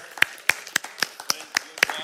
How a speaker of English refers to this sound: You, you, you clap like you're clapping for me. I'm talking about clapping for Jesus. That's a different type of clap.